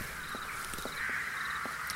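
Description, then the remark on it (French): Countless crows caw continuously at dusk, perched by the dozen on a roof, old wooden fences and branches by a wood, harsh overlapping calls forming a dense, steady racket with no pauses, fairly loud. “Quand je suis arrivé au bout du sentier, le soir tombait déjà et les corneilles étaient innombrables.”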